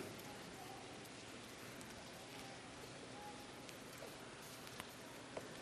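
Many Bible pages turning across a large church audience as they look up Hebrews 13, a soft, steady papery rustle with scattered faint flicks, with no one speaking.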